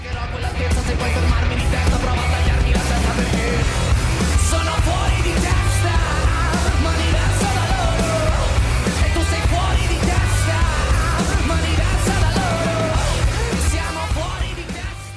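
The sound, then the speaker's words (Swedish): An Italian hard rock band plays at full volume, with a dense wall of distorted guitars, heavy bass and pounding drums and a shouted lead vocal, loud and constant throughout. “Ett helt band som spelar hårdrock för full volym.”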